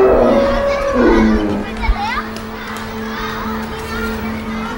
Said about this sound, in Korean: 오늘은 동물원에서 행복한 한때를 보내는 사람들의 소리를 들려드렸습니다. 가족과 나들이를 가거나 친구 연인과 즐거운 시간을 보내는 장소 중에 하나가 바로 동물원이죠.